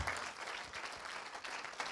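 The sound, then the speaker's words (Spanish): A church audience claps steadily together in applause for the Lord, a dense, sustained patter of many hands at moderate volume with no voices over it. “Dele un aplauso al Señor.”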